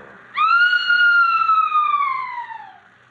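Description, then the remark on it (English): A girl's single loud, sustained scream erupts suddenly, holds a piercing high pitch, then slowly sinks and fades over a couple of seconds against faint background noise. “You heard a scream?”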